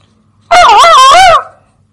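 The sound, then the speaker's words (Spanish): A single loud, harsh parakeet squawk lasting about a second, with a wavering, nasal pitch that rises and falls before cutting off, with no talking. “Ya cállate, maldito pájaro.”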